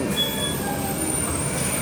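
Steady interior noise of a moving bus: a continuous low rumble and drone with thin, high whining tones running above it, no voices, holding constant throughout.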